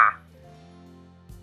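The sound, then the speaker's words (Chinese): A crow gives one short, harsh caw at the very start, followed by a low, steady droning hum and a soft thump near the end. No one speaks. “乌鸦大声对茶雪人说：“ 路上要当心哦，茶雪人，你现在已经变成一名水手啦！”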